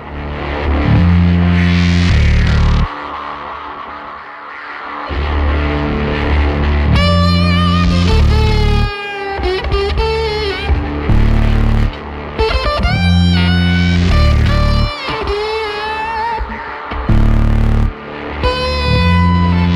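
An electronic remix of a rock song plays loud and steady, heavy pulsing bass under distorted, effects-laden tones and warbling processed melodic lines that rise and fall, with brief drop-outs between phrases.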